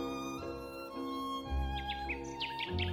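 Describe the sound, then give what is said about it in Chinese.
Sparrows chirp in quick, high, bright bursts during the second half, layered over steady music with a sustained tone and a low bass pulse. “麻雀飞走，苹果树迎来了夕阳。”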